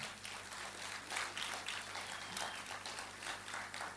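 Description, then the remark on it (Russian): An audience at a religious service claps steadily for God for several seconds, a dense, even wash of many hands that sounds subdued, with a low hum underneath. “Давайте Богу дадим громкие аплодисменты.”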